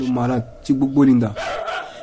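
A dog lets out three drawn-out, whiny barks in quick succession at a veterinary clinic, where it was brought for a routine check-up; each bark is a tonal, yelping burst with short gaps between them.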